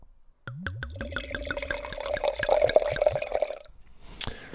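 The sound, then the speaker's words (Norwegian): Knaya white wine, a 2021 Verdejo from Rueda, Spain, poured into a glass: a few glugging splashes, then a steady trickling stream for about three seconds that rises in pitch as the glass fills, stopping before a light clink. “Nå er det 2021 som har kommet, så nå skal jeg bare få litt oppi glasset her.”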